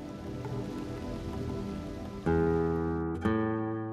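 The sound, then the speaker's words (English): Steady, dense rain hisses continuously, then two loud sustained musical chords strike about a second apart and ring out over the downpour. “Meanwhile, the sky grew black with clouds. The wind rose. A heavy rain started falling”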